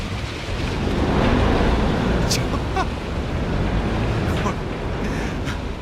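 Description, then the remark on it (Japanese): A Bangkok public water bus engine roars steadily on a canal, loud and unbroken, mixed with rushing water and wind buffeting the microphone, with faint muffled voices in the background. The boat is about 30 metres long, carries about 100 people, and runs parallel to a major road. “渋滞解消のために使われている公共交通機関水上バスのサウンドをお届けしたいと思います”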